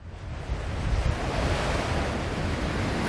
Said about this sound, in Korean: 얼른 인사만 남기고 현관을 나서자마자 찬바람이 훅 불어와 문을 쾅 닫아버렸다.